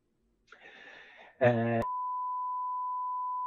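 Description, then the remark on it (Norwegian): A brief scratchy rustle and a short harsh buzz give way to a steady, unbroken telephone line tone that holds loud and alone until the end, the sound of a call nobody answers. “Plutselig er det ikke noe, noen som svarer lenger på telefonen der.”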